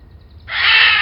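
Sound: raven cawing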